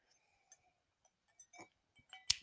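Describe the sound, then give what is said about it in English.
Ice cubes clink softly against a glass of wine holding too many ice cubes, in a few scattered, bright little knocks with a brief ringing tone, ending in a slightly louder clatter as the glass is moved. Quiet, no voices. “If you can hear my wine, I'm really sorry. I have got, I put too many ice cubes in it, but oh well.”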